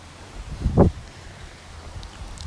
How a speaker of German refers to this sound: Hier windet es gerade extrem.